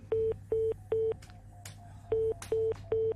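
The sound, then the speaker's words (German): Six short, steady electronic beeps from a complicated telephone, like keypad tones, come in two groups of three with a pause between them. Each tone is even and mid-pitched, sounding over a low background hum. “Während du piepst, erzählen wir noch ein bisschen.”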